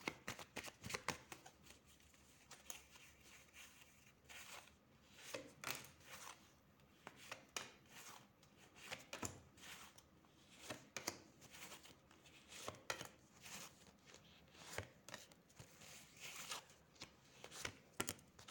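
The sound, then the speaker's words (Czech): Cards being shuffled over and over for a card reading for the year 2022, a run of crisp, papery riffles and flicks with irregular bursts of fluttering snaps, fairly quiet with no talking. “A už jsem konečně u vás, dívám se na vaši fotku, míchám u toho karty a podíváme se teda, jak se bude barvit ten rok 2022.”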